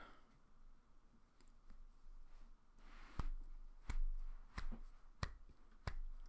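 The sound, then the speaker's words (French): A few soft, slow hand claps, a speaker applauding himself for his own joke, about five crisp single claps at an even, unhurried pace, starting after a quiet stretch with no one speaking. “Je m'applaudis. Hein. Je le fais pas fort parce que je suis pas un égo surdimensionné non plus, mais très drôle.”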